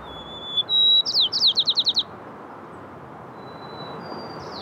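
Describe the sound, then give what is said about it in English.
Two male birds counter-sing: a bright whistled phrase ending in a rapid trill rings out, then a thin, faint answering whistle comes from the other bird over a quiet background. “You can hear this communication happening, the counter singing between two males.”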